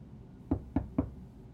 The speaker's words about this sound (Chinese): 嗯，是谁在敲门啊？大家不是都出门去找食物了吗？ 瘦蚂蚁听到敲门声，觉得很奇怪，但他还是把门开了一个小缝。